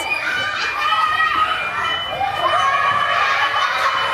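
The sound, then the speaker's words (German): A dense, loud crowd of children at a daycare centre shouting and chattering over one another during an alarm, high-pitched voices overlapping continuously without pause. “Der Alarm ist sehr laut, die Kinder sind auch sehr laut.”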